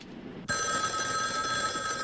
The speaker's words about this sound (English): Yeah, what I've done is I've tapped this phone so that when it rings, it'll ring at the station house, too.